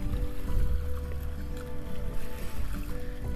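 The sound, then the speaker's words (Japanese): Ocean waves wash steadily against the shore at Ishigaki island, Japan, in sunny weather, in a continuous rush of water over a deep low rumble, with no voices present. “いやーマジで天気がいいとなんかテンション上がるなね波の音聞こえますよねいい感じで”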